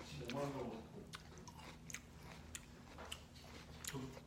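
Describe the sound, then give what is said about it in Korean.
Crunching of Poca potato chips being chewed, with five or six sharp, crisp bites at an irregular pace, and a brief soft murmur of voice near the start. “포카 맛이요? 어 아삭아삭해서 좋아요”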